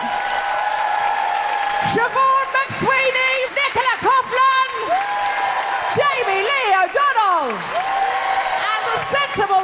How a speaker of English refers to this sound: And in the meantime, a big, huge round of applause for Saoirse, Monica Jackson!